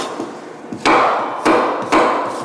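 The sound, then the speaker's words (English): A knife slices green apples on a cutting board for a crunchy endive Caesar salad: three sharp, crisp chops at an uneven pace, each followed by a brief scraping rasp, with no voices. “So we we got some uh, some green apples. Slice these up.”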